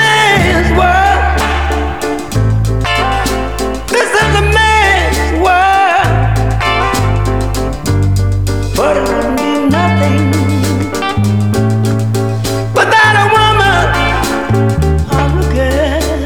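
A soul song plays loudly and continuously, with a strong, steady bass line, brassy instrumental accents and a vocal melody riding on top throughout.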